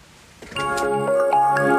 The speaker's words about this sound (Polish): Dzwonek na pierwszą lekcję.